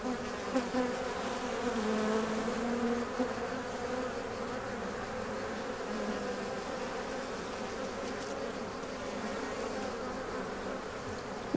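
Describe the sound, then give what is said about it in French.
A recording of many bees, bought at a flea market, plays a dense, steady drone of buzzing together, a continuous hum that stays at an even level throughout with slight shifts in pitch as individual insects pass. “Qu'est-ce que c'est quoi Eh ben, c'est des abeilles.”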